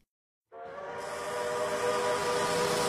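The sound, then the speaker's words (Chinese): After a brief silence, the whistle of an old green passenger train blasts as the train slowly starts, holding as a loud, sustained, breathy tone with layered harmonics and hiss, swelling slightly and never letting up. No one speaks. “绿皮火车缓缓启动，我们临窗而坐。”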